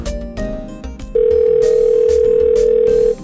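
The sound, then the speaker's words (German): A steady, loud telephone dial tone sounds for about two seconds as a phone number is called, over faint background music, after brief musical bursts at the start. “Da kann man angeblich mit Stephen Hawking sprechen. Ich rufe da mal eben an.”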